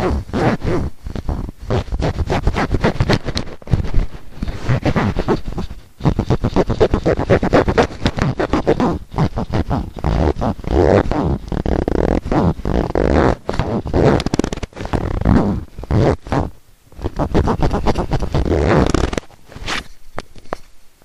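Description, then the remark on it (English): Loud scraping and rustling of a clip-on microphone rubbing against the zipper of a pair of pants, continuous with irregular bursts and brief pauses, no talking. “And this has been a microphone rubbing against my zipper.”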